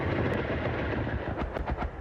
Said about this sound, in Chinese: 阿帕奇直升机发射海神火箭弹，精准命中目标。